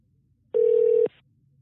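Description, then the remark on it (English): A single burst of outgoing-call ringback, a steady electronic tone held for about half a second against near silence, clear as if heard through a phone line, on a call to a number where nobody is picking up. “right, somebody sent me their number, but they're not picking up.”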